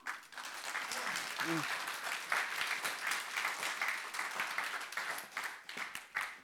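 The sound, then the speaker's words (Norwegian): An audience breaks into sustained applause, dense steady clapping filling the whole stretch at an even loudness, with a brief vocal murmur or cheer rising briefly early on. “Da gir vi en klapp til han.”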